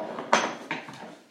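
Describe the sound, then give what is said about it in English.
A few sharp clattering knocks, like dishes or hard objects being bumped around, made by a puppy in the background, come in quick uneven bursts at moderate volume, with no talking over them. “Oh, sorry about the background noise. That is the puppy”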